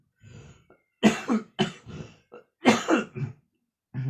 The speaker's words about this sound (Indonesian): sorry batuk